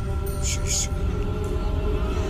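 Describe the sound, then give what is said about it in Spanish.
A man gives two quick, shrill whistles in succession over a steady, droning low hum, each blast short and bright, the second slightly longer than the first. “Y se le ocurrió este, pues hacer un chiflín especial para llamar al diablo, para pedirle ayuda”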